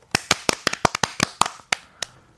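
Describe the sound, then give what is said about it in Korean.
A short burst of applause on a radio show for a listener's successful child-raising: about a dozen sharp, crisp hand claps in an uneven rhythm, tapering off after two seconds, with no voices. “예, 성공적인 자신 농사에 박수.”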